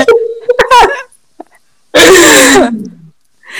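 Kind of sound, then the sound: human body sound, coughing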